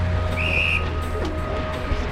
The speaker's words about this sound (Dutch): Bij elk fluitsignaal gaan we een tandje erbij doen. Dat doen we drie keer en daarna gaan we aan het programma beginnen.